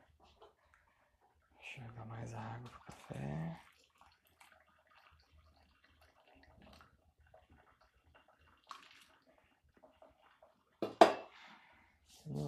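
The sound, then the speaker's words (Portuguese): Water is poured to brew coffee in a brief stream, mixed with a low murmuring voice, followed by quiet handling and a short sharp clatter near the end. “Bom, enquanto o café passa, eu vou montar meu computador aqui.”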